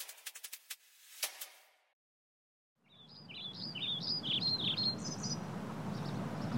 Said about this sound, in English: The birds are chirping. I forgot that birds exist. Well, here they are existing, coming through on spring migration. It's that time. Welcome back, birds. Welcome. You've been missed.